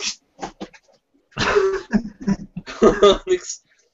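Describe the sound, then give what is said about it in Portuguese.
A female cat named Maria lets out a series of short, strained meows and yowls, coming in irregular bursts with brief pauses between them. “Renda gata de vez em quando dá com cada...”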